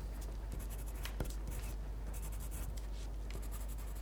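A pencil tip scratches and flicks back and forth across a sheet of paper in quick, uneven strokes, fairly quiet, with a few sharper taps and no voices.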